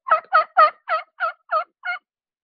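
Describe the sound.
A slow, evenly spaced series of seven raspy jake yelps made on a two-inch Osage turkey tube call, each note coarse and mid-pitched, fading slightly toward the end with no talking.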